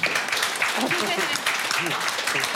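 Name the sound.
applause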